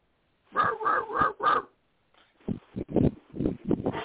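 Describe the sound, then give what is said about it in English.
A dog barks four times in a quick, even row, then after a brief pause lets out a faster, more ragged burst of barks, fairly loud. “Well, I didn't hear a lot of them because I heard a dog barking and I couldn't hear you over the dog barking.”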